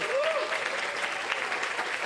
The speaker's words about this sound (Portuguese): Vocês não acham que esse momento merece uma salva de palmas? Merece.